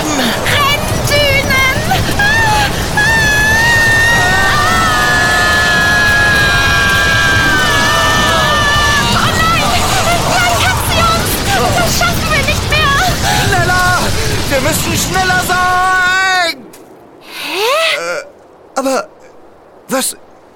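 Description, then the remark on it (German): A sandstorm in the Magic Max World roars as a dense, steady rush of wind with high whistling tones, then suddenly stops, leaving near silence broken by a few short bursts. “Der Sandsturm hat ganz plötzlich aufgehört.”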